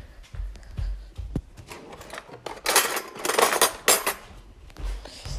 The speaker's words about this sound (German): Und jetzt gibt es auch schon Mittagessen. Ja. Ich decke schon mal den Tisch. So, Besteck.